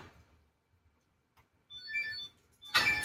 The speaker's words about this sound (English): So basically, what ha- just happened there is I made a button beep with a channel point on my channel, and then Mouse will go boop that button with his nose.